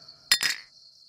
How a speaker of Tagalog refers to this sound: Lumagok pa raw siya ng isa tapos nilapag yung bote sa lamiseta.